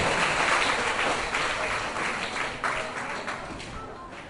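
Children clapping together in a sustained round of applause to praise their own cleverness, a dense patter of many small hands that holds steady for several seconds before gradually thinning out.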